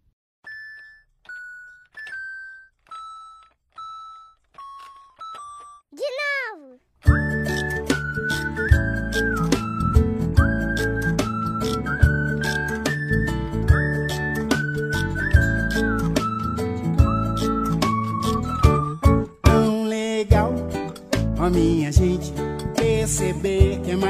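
A song played to open a programme in tribute to Autism Pride Day begins with a short run of descending chime-like notes and a sliding whistle tone, then a full band kicks in with steady drums, bass and a bright lead melody.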